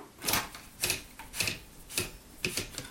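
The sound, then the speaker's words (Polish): Paper is wound into a typewriter platen after the paper clamp is closed, the right hand turning the toothed knob at the end of the roller, giving five evenly spaced ratcheting bursts about half a second apart, fairly quiet, with no voices. “Blaszkę zamykamy i wkręcamy kartkę trzymając prawą ręką za kółko zębate umieszczone, umieszczone na końcu wałka.”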